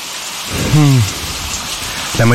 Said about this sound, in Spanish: Ya está empezando a llover.